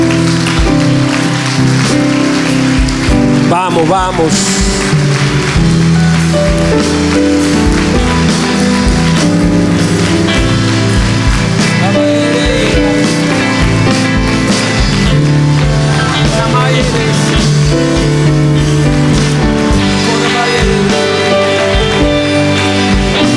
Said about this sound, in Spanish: ¿Qué tal si todos juntos aplaudimos al Señor?